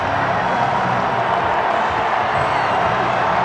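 A large Colorado State stadium crowd at a football game against the Raiders cheers in a loud, sustained roar that holds steady through the whole stretch, a dense wash of voices and noise with no single voice standing out.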